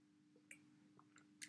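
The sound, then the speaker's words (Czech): Faint wet mouth clicks over a low steady hum, then a single short, loud gulp at the very end as someone swallows a sip of water. “Tak já si nám tady log vody a budeme pokračovat.”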